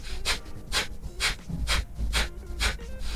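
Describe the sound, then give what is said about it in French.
Loud, rhythmic breathing into a horse's nostrils, about seven quick airy breaths in steady succession with no talking, each one a breathy rush of air. “Donc euh, la respiration, elle est assez bruyante.”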